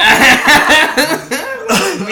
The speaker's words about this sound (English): That was, that was a kombucha cough too.